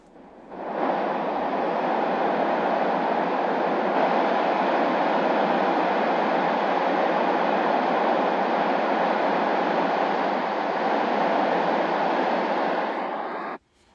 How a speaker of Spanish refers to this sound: Eso que ustedes acaban de escuchar, papitos, es el ruido blanco. Como ya les mencioné antes, es el que nos va a ayudar a optimizar el ambiente del sueño para el bebé.